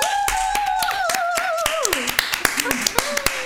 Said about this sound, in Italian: Ciao, benvenuti alla prima puntata di Goosey Views. Un applauso.